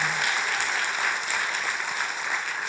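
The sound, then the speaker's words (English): An audience applauds for their pastor: steady applause fills the whole stretch, a dense wash of many hands clapping at once, fairly loud and continuous without any talking over it. “But like, uh, can can we just hear it for your pastor?”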